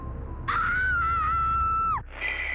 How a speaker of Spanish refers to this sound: Gritos desgarradores de una mujer joven, tal vez de mediana edad, salían despedidos del auricular.